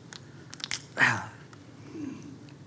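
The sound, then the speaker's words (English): Mouth sounds of someone drinking water: a few small wet clicks, then a louder gulping swallow, followed by a soft breathy exhale. No talking. “Oh, isn't water wonderful?”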